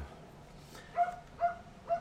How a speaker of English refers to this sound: and somebody can shut their fucking dog up right now. Go out there and fucking kick it.